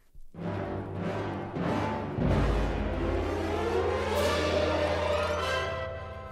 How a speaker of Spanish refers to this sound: Durante más de 20 minutos, David Martin viajó por la carretera que bordeaba el mar. Después, detuvo el vehículo al borde mismo del acantilado.